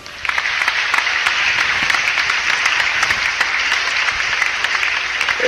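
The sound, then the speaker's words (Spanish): Loud, sustained applause from a crowd for the group from UNE Toluca, a dense steady wash of many hands clapping that holds at full volume for several seconds with no voices over it. “Un fuerte aplauso, aplausos, por favor.”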